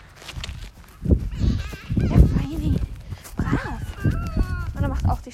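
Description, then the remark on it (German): A horse's hooves drum on the ground in a quick, rolling gallop rhythm on the left lead, partly buried under a person talking over them. “Galopp ist echt mega schön, wenn er im linken Galopp galoppiert.”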